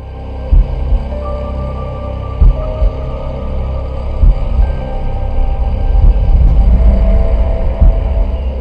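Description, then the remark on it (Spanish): A steady low-frequency drone, low-frequency sounds mixed in under the audio, hums throughout, heavy in the bass, with occasional soft thumping pulses every couple of seconds and no voices. “Vamos a dejarles poquito entre la, mezcla de, nuestra, de nuestro audio que estamos aquí platicando, tantitos sonidos de baja frecuencia.”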